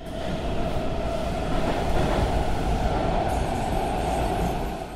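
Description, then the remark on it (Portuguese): Steady rumbling roar from inside a moving Washington Metro Silver Line subway train, riding toward the last station of the line, with a sustained tonal whine over dense low-frequency rattle, loud and continuous throughout with no voices. “Eu fico no trem até a última estação da linha prateada do metrô de Washington.”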